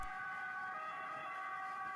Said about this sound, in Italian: L'ambulanza che sentite in questo momento, invece, porta in ospedale una donna arrivata al viale del tramonto della sua giovane vita.